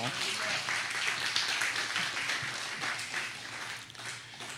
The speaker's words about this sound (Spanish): vamos a dar un fuerte aplauso al Señor por eso.